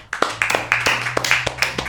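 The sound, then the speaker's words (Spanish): Brief round of applause: a few people clap, sharp slaps overlapping in a quick, uneven rhythm that keeps going steadily for about two seconds, with no voices. “un aplauso, por favor.”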